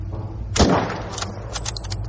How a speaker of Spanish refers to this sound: Bacho y Garo apuntan. Pavel observa. Varios perros corren hacia ellos. Pavel se sobresalta con los disparos.